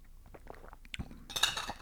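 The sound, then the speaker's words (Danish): Metallic clicks and scrapes as a metal water bottle's lid is unscrewed, then brighter clinks and soft sipping and swallowing sounds as a small sip of water is taken. No one speaks. “Som man kan høre, så har jeg givet mig selv i øh, sommergave en, øh, en fin metal vandflaske.”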